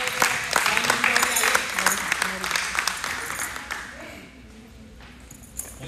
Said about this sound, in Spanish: ¿Cuántos dicen amén? Le dan un buen aplauso.